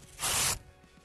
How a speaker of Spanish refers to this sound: Le, estoy sacando las hojas a este libro que no, no sirve para nada.